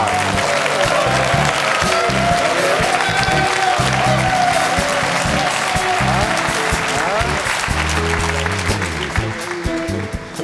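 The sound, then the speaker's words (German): Loud, sustained audience applause fills the whole stretch, a dense wash of clapping at a steady level with faint crowd voices mixed underneath, given to congratulate a participant on her birthday. “Sie hatte am Freitag Geburtstag und wir gratulieren nochmal mit einem donnernden Applaus,”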